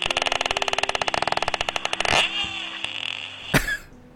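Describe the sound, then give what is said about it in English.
A voice mimics a porpoise with a fast, buzzy train of clicks for about two seconds, then a short squeaky whistle and a sharp breathy burst. It is fairly loud. “Here's a porpoise.”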